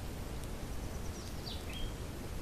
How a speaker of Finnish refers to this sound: Menemme lasten kanssa lähimetsään keräämään sieniä ja marjoja. Kuuntelemme lintujen laulua, ihastelemme syksyn värejä.